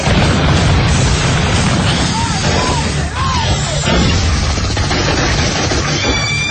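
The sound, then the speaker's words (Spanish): A dense, continuous barrage of loud gunfire and booming blasts from militiamen shooting at attacking invaders on a city street, a chaotic wall of battle noise with no pauses, overwhelming. “Los disparos los hacen caer violentamente destrozándose al rodar por el asfalto convulsionado pero otros llegan hasta el grupo de milicianos y saltan sobre los humanos aterrados.”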